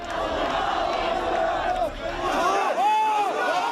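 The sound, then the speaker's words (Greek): Thousands of protesters surrounding the Israeli consulate, trying to break the police cordon, firing flares and burning the Israeli flag, shout and chant together in a dense, continuous roar of voices, with rising and falling cries standing out near the end. “χιλιάδε διαδηλωτέ περικύκλωσαν το Ισραηλινό προξενείο προσπαθώντα να σπάσουν τον αστυνομικό κλειό εκτοξεύουν φωτοβολίδε και καίνε τη σημαία του Ισραήλ.”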